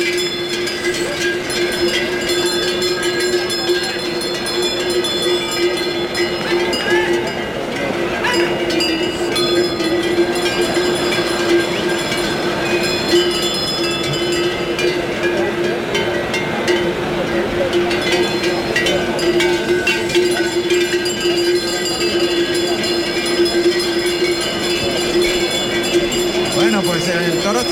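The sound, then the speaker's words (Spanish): A herd of eight large oxen with bells moves around a bull, surrounding it in the center, their bells clanking continuously with a busy metallic jangle over shuffling hooves, steady, with a faint murmur of voices in the background. “Ahí están envolviendo perfectamente al toro en el centro los ocho enormes bueyes. Y vamos a oír esos sonidos, venga.”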